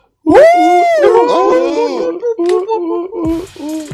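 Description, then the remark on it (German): Several people make loud, overlapping hooting and wailing monkey-call imitations, their voices rising and falling in pitch in a rowdy chorus that continues for about four seconds. “diese Affenstimmen gehören einerseits dem …”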